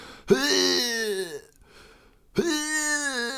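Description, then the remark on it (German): A voice imitates a man vomiting on a street in Hamburg: two loud, strained, groaning heaves separated by a short quiet gap, with no other talking. “Neben so kotzenden Typen stellen und zugucken.”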